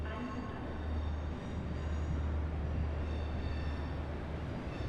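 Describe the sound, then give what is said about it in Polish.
A train rumbles steadily along with a deep, continuous low roar and a rattling wash of noise. The sound stays fairly loud throughout, with no voices. “Po seansie poszli na dworzec, gdzie przenocowali w poczekalni w oczekiwaniu na pociąg.”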